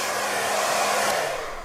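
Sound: hair dryer blowing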